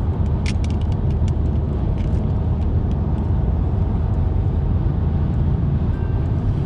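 A steady, loud low rumble of road noise fills the inside of a moving car as the weather turns sunny, constant throughout with a few faint ticks and rattles near the start.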